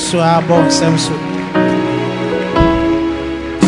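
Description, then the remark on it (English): An audience claps steadily in a dense, rain-like patter, mixed with sustained singing or music that carries on throughout. “Keep clapping.”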